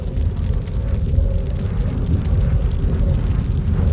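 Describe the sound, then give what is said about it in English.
A steady, heavy low rumble of a rescue plane's engine droning overhead during an Arctic blizzard, continuous and fairly loud for the full stretch, with no voices over it. “Yes, it's a plane. A rescue plane. A plane! Overhead!”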